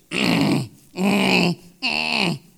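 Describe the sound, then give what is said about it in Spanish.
A voice imitates a child's grunting with three loud, drawn-out, guttural grunts in a steady rhythm, each about half a second long and separated by brief pauses. “¿Y qué es lo único que hacen estos bichos? Gruñir.”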